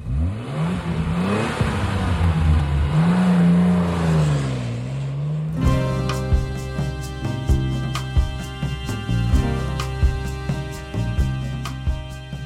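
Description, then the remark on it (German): A car engine revs hard and accelerates loudly for about five seconds as the car drives away fast, its pitch climbing and dipping, before the sound cuts abruptly into music. “Die beiden Gestalten packten sie in ein Auto und fuhren schnell davon.”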